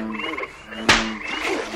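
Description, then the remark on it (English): Frogs croak in a steady chorus of buzzy, tonal calls, broken midway by a single sharp, loud burst before the croaking carries on. “I have nothing against frogs.”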